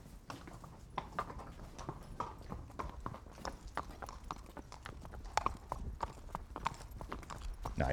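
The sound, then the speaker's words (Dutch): The hooves of Jo, a horse, clip-clop steadily on a hard surface, a quick irregular series of sharp knocks, with faint background noise and no talking over them. “Dat is Jo. Ah, daar is Jo.”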